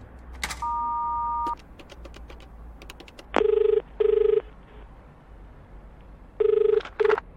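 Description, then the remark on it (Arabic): A steady dial tone, then a quick run of sharp keypad clicks as a number is dialed on a public payphone in a cafeteria, calling a friend who is a retired police officer, followed by two pairs of loud, buzzy double telephone rings. No one speaks. “اتجه الى جهاز هاتف عمومي يكشف له المخرج وطلب رقم احد اصدقائه من رجال الشرطه المتقاعدين ذوي مكاتب التحري”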